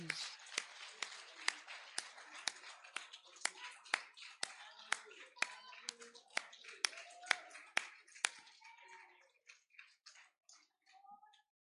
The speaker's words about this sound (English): If you're thankful for his touch, give him a hand clap of praise.